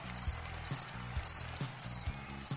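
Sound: cricket chirping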